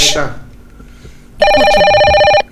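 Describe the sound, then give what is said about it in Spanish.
A phone line rings on an outgoing call being dialed during a show: one loud, steady, buzzy ring tone lasting about a second, after a brief burst of voice and quiet background at the start. “Están marcando. Son llamadas A ver si lo pueden escuchar.”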